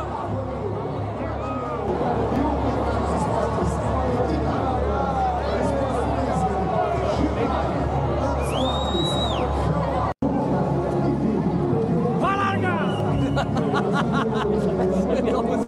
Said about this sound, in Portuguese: E cara, é impressionante, eu vou deixar depois só o áudio para vocês escutarem o barulho da prova que é essa largada que cara é muito emocionante.